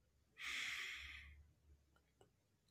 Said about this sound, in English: As you deep breathing in, breathing out, and breathing in,